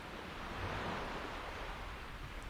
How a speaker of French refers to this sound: et il y avait un vent qui était doux, très doux.